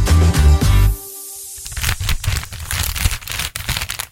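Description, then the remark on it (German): A brief bit of music ends, then Karopack paper packing cushioning is rustled and crinkled held very close to the microphone on the radio station Antenne Bad Kreuznach, loud, irregular crackling bursts continuing for a few seconds on their own. “Ja, jetzt habe ich mal extra ein bisschen geraschelt damit.”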